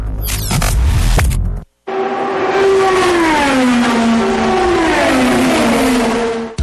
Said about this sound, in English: Off of turn number four, two drivers run door to door, beating and banging, racing to get to the checkered flag.